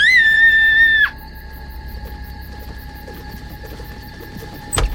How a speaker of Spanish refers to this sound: en medio de la noche la hija de la Toya se puso a gritar desde su habitación